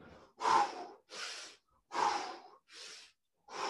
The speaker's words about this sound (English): really over exaggerate the breathing, force it in, fire it out.